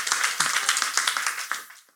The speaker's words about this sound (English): Well, yo, we we should applause that.